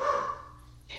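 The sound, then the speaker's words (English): A single dog bark rings out, bright and sharp, then fades into a brief quiet before a soft breathy rustle at the end. “and hi doggy i know i was like oh my gosh where did that even come from i, I don't even know if that's my dog or not”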